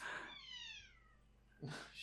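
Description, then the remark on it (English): A cat named Caramel, looking at the door, lets out one drawn-out, falling meow, followed by the start of a second call just before the end. The meows are fairly soft, with no talking. “She's just looking at the door and meowing.”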